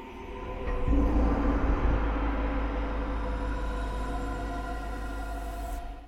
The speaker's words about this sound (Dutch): Vond het ook wel mooi om te beginnen met deze gong hier zo.